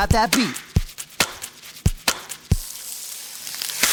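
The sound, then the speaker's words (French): Crisp turnip chops and thuds sequenced into a loose beat for a rap composed by a musician using only turnip sounds, about seven sharp hits over a few seconds, opening with a warbling pitched swoop and a hissy, noisy wash in the later half. “Et rien qu'avec des sons de navet, … a composé ce rap.”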